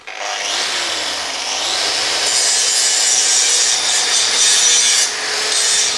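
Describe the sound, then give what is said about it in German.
An angle grinder runs continuously, grinding off the sharp edges of a metal piece all around a backpack, a loud, harsh, hissing whine with a low motor hum underneath that shifts slightly in pitch as the disc is pressed along the edges. “Hier ist er jetzt dann mit dem Winkelschleifer noch einmal um den kompletten Rucksack drumherum, um die scharfen Kanten des Metallstücks abzuschleifen.”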